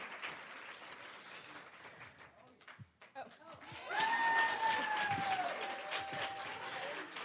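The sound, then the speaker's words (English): An audience claps steadily to thank a setup team for their hard work, dips briefly, then swells into louder, fuller applause that carries on to the end, with a sustained high whistle-like tone riding over it. “Would you ladies help me thank them for all the hard work they put into this?”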